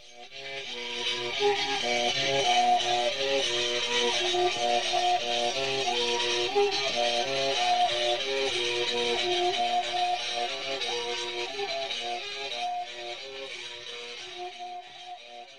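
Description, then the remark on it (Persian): A mouth bow (kaman), its string struck with a thin stick and held near the open mouth, plays a steady, buzzing drone; changing the volume of the mouth cavity brings out overtones that form a bright, bouncing melody. The playing is continuous, with no voices. “این نمونه صوتی رو شنیدید از اجرای کمان”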